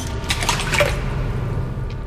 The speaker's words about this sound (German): Dann legt sie sich in die Wanne und lässt schließlich den Föhn, der an die Steckdose angeschlossen ist, ins Wasser fallen.